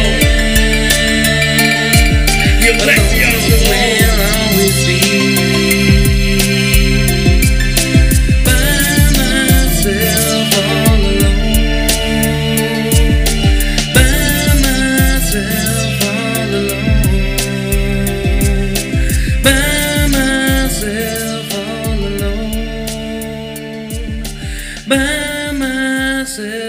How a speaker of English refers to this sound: What you just heard is from a rapper from back in the day.